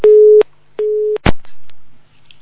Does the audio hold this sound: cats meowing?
no